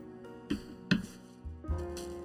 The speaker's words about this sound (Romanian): Bun, acum urmează să punem niște gheață